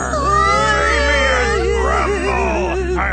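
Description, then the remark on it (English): A voice imitates the Red Lion crying in a story with Dorothy and the Tin Man, a loud, wavering, whimpering wail that rises and falls in pitch and carries on steadily for about three seconds. “Oh, Red Lion, why are you crying?”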